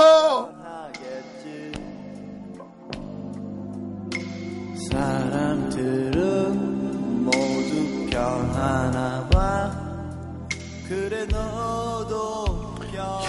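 A pop song plays continuously, with a melodic singing voice over steady bass and full backing instruments at a moderate, even volume. No one talks over it.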